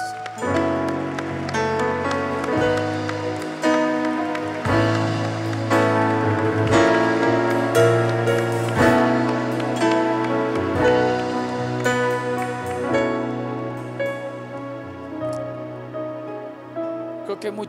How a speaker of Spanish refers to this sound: Vamos, a aplaudirle fuerte, a Jesús.